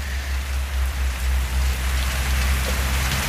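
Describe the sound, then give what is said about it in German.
Heavy rain mixed with hail suddenly pours down in Spain, a dense, steady drumming hiss with a low rumble underneath, continuing without pause and with no voices. “Ich habe jetzt bringt es auch nichts mehr, meine Regenhose rauszuholen, weil das kam jetzt so plötzlich, dieser krasse Regen und Hagel.”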